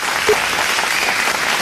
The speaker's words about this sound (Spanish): Mis aplausos, te cipote.